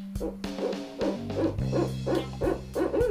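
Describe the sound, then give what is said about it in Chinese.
The owl Uncle Xiaohei hoots vigorously in a quick, steady series of about eight low, resonant calls, each rising slightly, over a sustained low humming tone underneath. “于是，小黑叔叔中气十足地发出声音了。”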